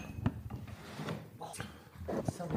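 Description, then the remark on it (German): A door is opened: a few sharp wooden clicks and knocks of the latch and handle, spaced over a couple of seconds, with faint shuffling and low murmuring underneath. “Ich mach mal kurz die mhm. Tür auf.”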